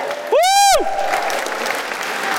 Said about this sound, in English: Keep going, make room. Right. Let him through. Keep cheering him. Keep cheering him.